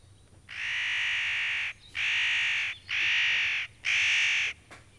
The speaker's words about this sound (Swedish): Där är båda. Ja. Nötskrik och nötkråka. Många härliga ljud här.